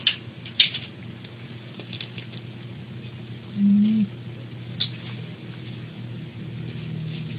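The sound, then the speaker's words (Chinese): A pet named Maimai snoring, recorded by its owner: a steady, low, raspy rumble that continues throughout, with a few soft clicks early on and a brief nasal whine partway through. “对，那就是主人有把他这个当初打呼的声音录下来了，想必也是想起麦麦的时候，就是想要看看影片，想念他一下。”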